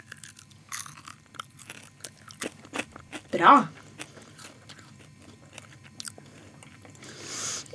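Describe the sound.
Crunchy nutty snack being bitten and chewed, a series of sharp crackling crunches with one loud burst in the middle, while people talk quietly in the background.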